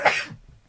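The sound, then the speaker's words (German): A single sharp sneeze, a brief explosive burst of breathy noise that cuts off quickly and fades into quiet, with no talking. “Und ähm, Gesundheit.”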